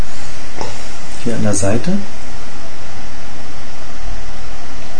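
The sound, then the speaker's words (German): A lighter flame hisses steadily while a cigar is relit, the rushing noise running throughout as a man briefly speaks over it. “Ich feuer jetzt präventiv nochmal nach.”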